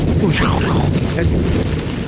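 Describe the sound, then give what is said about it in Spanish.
Loud, deep thunder from a strong electrical storm, recorded from the rear pickup truck of a two-truck family caravan, rumbles continuously for the whole stretch, a heavy low roar with crackling edges, with voices mixed in underneath. “Y la, a la de enfrente, como había una tormenta, eléctrica muy fuerte y nomás se escucha.”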